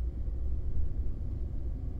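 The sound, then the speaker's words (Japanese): A steady, deep engine rumble fills the interior of a moving van heading back to the workplace through an entertainment district with neon lights. It is a continuous low drone with faint road vibration and no voices. “職場へと戻るワゴン車に揺られ歓楽街のネオンライトを見つめながら今日までのことを思い返していた”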